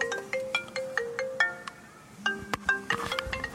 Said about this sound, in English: and there's the phone. So uh, hang on, eh?